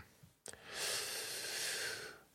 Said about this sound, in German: Ja, also wie gesagt, ich also ich, ich gähne schon hier, weil ich so eine Abwehrhaltung in mir habe, weil mich das immer ganz verrückt macht, wenn ich sowas neu laufen lerne.